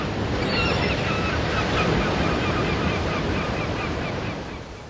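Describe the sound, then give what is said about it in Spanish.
Steady roar of surf and cold wind blowing off the water fills the scene during a day of sailing, with faint, repeated cries of seagulls flying high above the waves throughout. “Es así que la navegación de ese día fue por algunos momentos nostálgica, en otros instantes bella, al observar el celeste del cielo, el vuelo de las gaviotas y la fría brisa que se desprendía del agua.”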